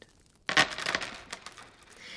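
A heaped bushel of coins spills and clinks after a short quiet start, a bright jangling burst of many metallic chinks that rattles on and gradually settles, with no voices.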